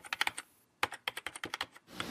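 Rapid keyboard typing with crisp, irregular key clicks in quick bursts, a short pause in the middle, then more fast tapping, close and clear with no voices.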